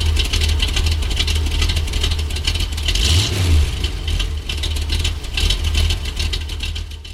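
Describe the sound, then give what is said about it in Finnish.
A Porsche Cayman with the smallest engine offered, a 2.7 rated at 245, rumbles loudly and steadily, with one quick rev that rises and falls midway, then settles back into a throaty drone. No one speaks. “Tämä on pikku Porsche ja siinä on kaikista pienin moottori, 2,7, vaan 245.”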